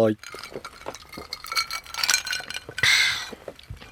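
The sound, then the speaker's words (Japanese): Glasses of Hakutakejo rice shochu from Takahashi Shuzo of Kumamoto clink together in a toast, bright, with a couple of sharp ringing touches and a longer shimmering chime near the end, after a brief voice at the start. “さて、今週も私の地元熊本の高橋酒造の米焼酎、白竹城で乾杯しましょう。”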